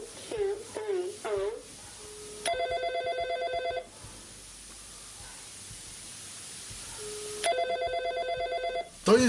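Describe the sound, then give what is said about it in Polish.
A mobile phone's default ringtone rings in two pulsing bursts separated by several seconds of quiet hiss, clear, with a few brief chirpy tones at the start. “dzwonek, który ja mam jako domyślny tutaj.”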